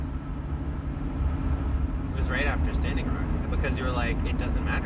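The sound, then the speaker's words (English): Steady low road rumble from inside a car driving through a snowstorm in winter, recorded on an iPhone, fills the whole clip, a constant dense drone beneath a person talking over it. “Sorry about the road noise, and he said I could share this with you.”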